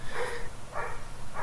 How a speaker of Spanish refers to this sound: perdón por el perro del vecino